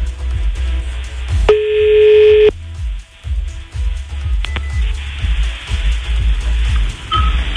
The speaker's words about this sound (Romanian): Ia că sună telefon. Ia stați un pic.